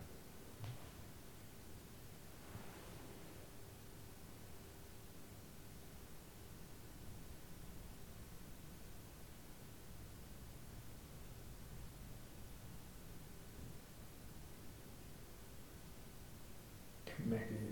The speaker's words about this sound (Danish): det er nok det blæser. Det er som om der er sådan en rumstern hele tiden, uden ja. lyde. Jeg tror, det er fordi, at det rusker udenfor.